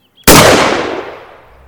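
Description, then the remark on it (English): One loud, sharp gunshot cracks out of near silence from open fields beyond a silent village, then its booming tail fades away over more than a second. No voices or other sounds follow. “another shot broke the silence.”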